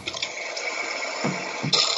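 A toilet flushing: a steady rush of water running the whole two seconds, with a couple of gurgling surges near the end and no voices.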